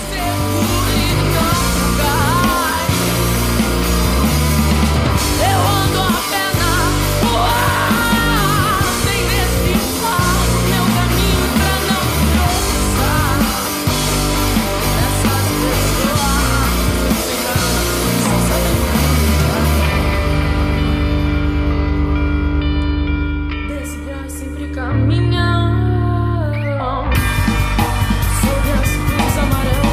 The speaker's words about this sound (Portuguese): Talento, ó, escuta aí a voz dela aqui no... Gritando no rock and roll.